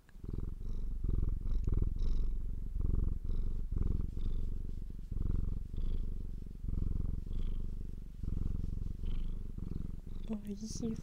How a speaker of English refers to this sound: Oh, can you hear the cat?